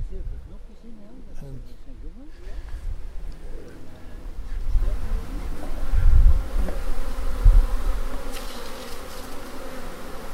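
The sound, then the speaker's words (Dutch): Honeybees buzz close to the microphone and around the speaker's ears and hand as hive frames are handled, a steady, wavering drone swelling louder as individual insects fly past and circle nearby, with low rumbling handling noise underneath. “Nou, Bijen die, die zijn nog heel duidelijk te horen en ze vliegen ook om mijn oren, om mijn hand en om de microfoon.”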